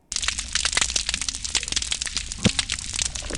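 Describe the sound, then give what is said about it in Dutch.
Snapping shrimp crackle on a reef, constantly making a vacuum with their special claw: a dense, unbroken mass of sharp, dry clicks popping at random, like frying fat, steady and fairly loud throughout, with no voices. “Nou, vooruit nog even de garnalen ook.”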